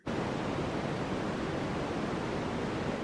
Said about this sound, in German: Wer sich jede Nacht White Noise auf die Ohren ballert oder ohne Bienen Airbnb nicht mehr einschlafen kann, oder wer die Regengeräusche-App täglich nutzt, ja, das gibt's, der sollte vorsichtig sein